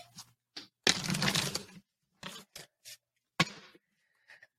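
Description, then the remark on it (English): A deck of cards being shuffled for a card pull: one long, dense papery riffle followed by several short flicks and taps, with pauses between them and no voices. “so I always wanted to have a microphone the next time I shuffled.”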